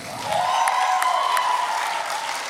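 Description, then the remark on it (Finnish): An audience breaks into sustained applause for a speaker, a dense wash of clapping that swells in quickly and holds steady at a strong level throughout, with no one speaking over it. “Antakaa aika valtavat aplodit.”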